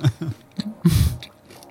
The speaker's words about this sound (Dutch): Even een slokje water.